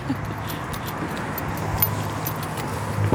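A car rumbles in low and close, pulling up over a few seconds with a steady engine drone, while light metallic jingling and small clinks sound on top.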